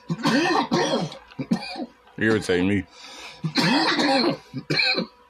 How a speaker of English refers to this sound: We got a seven cough rule on. Yes, I haven't smoked in a while, so you could tell.